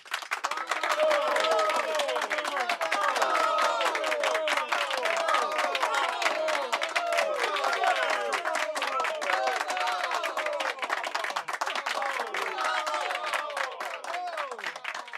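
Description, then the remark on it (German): Dense, steady applause from a sizable crowd, the clapping loud and continuous throughout, with many voices whooping and calling out beneath it. “Ähm, das, ist, äh, das ist wirklich ein kleiner Applaus wert.”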